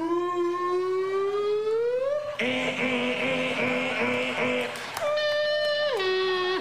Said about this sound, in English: Oh, we repeated part of the car alarm sound. I love it.